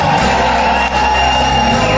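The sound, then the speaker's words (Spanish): A church audience shouts and cheers joyfully, a dense wall of many voices sustained loudly for the whole couple of seconds with no pause, giving a shout of jubilation to Jesus during a service. “Y dale el grito de júbilo más grande que puedas en este momento.”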